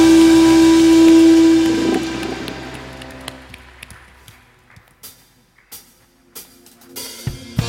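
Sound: audience applause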